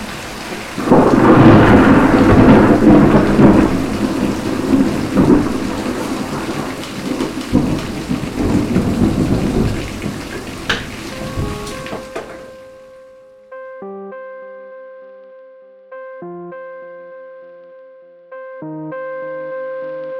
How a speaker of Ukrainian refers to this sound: Я цього ливня чекав, але не сьогодні.